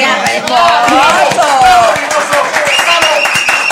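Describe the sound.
A crowd breaks into loud, sustained applause, dense rapid clapping, with voices calling out and talking over it throughout.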